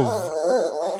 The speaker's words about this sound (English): my stomach. No, that's my dog.